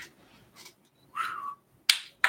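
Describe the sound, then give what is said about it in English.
A kendama ball clacks sharply onto a wooden cup twice in quick succession, crisp, after a brief rustling swish, with no voices. “and I think Jason's gonna take us out with a little kendama action here.”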